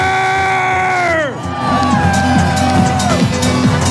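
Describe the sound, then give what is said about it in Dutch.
A loud crowd of about 5000 people walking behind a techno truck cheers at the Techno Together street parade, with long whooping cries that slide down in pitch twice over a steady roar of voices and babble. “lopen 5000 man achter de techno-truck.”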